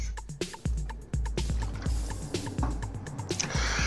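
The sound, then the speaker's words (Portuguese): Someone takes a drink of water, with a quick series of gulps and wet swallowing clicks in a steady rhythm and no talking. “Deixa eu tomar um gole de água aqui para hidratar minhas pregas vocais.”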